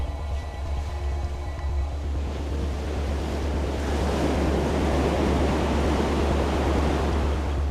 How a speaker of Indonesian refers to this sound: Pada debur ombak yang kesembilan,